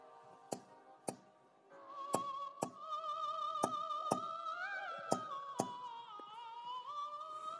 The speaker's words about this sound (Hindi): सोने के बाद एक बजी थी और मैं उठ गया मेरे को खिड़की से कुछ आवाज़ आने लगी कुछ ऐसी आवाज़ जैसे कोई दस्तक दे रहा हो खिड़की खिड़की से